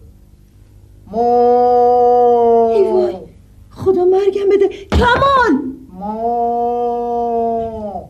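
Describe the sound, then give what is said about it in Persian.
A man imitates a cow with two long, drawn-out moos, loud, separated by a short burst of excited talking in between; he makes the cow sounds whenever someone knocks on the door. “هر چی در میزنم صدای گاو از خودش در میاره”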